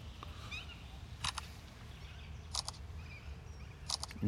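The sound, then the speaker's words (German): Three crisp camera shutter clicks fire at steady intervals over a low outdoor rumble, with faint bird calls chirping in the background and no one speaking. “Machen wir nochmal, ich will noch ein gut. Foto mit dem Affen machen.”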